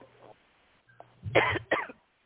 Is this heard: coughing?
yes